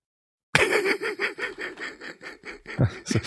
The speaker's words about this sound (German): nee, ich äh, musste mir auch gerade mal abhusten.